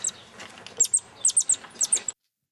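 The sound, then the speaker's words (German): A rapid series of high, thin squeaks from baby coatis, about ten short peeps coming in small clustered bursts, fairly clear over faint background rustle, with no talking. “Wir hören jetzt hier gleich Babynasenbären beim Fieben übrigens.”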